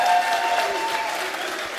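Sustained audience applause, a dense crowd of clapping hands filling the space at a steady, fairly loud level for the whole moment without pause.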